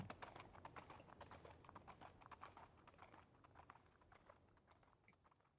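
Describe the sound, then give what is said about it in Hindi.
Rapid, steady clip-clop of horse hooves pulling King Dushyanta's chariot as the charioteer drives it back toward the kingdom, many quick hits in an even rhythm that gradually grow fainter as if moving away, with no voices present. “अब दुष्यंत अपने आप को संभालते हैं और रथ की तरफ बढ़ जाते हैं सारथी को चलने का आदेश देते हैं सारथी रथ को वापस राज्य की दिशा में ले जाने लगता है उधर शकुंतला दुष्यंत के रथ को जाते हुए देखती है क्षण भर में राजा और रथ शकुंतला की आंखों से लुप्त हो जाते हैं”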